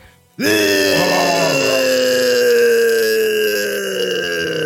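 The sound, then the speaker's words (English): A voice lets out a dramatic death yell for the character Friar Basher as he falls from the rocks: one loud, sustained cry that bursts in abruptly and holds for about four seconds, its strained pitch sagging slightly downward, with no other talking. “Let's get a Friar Basher death yell going.”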